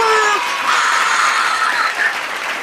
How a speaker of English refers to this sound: And the crowd goes wild.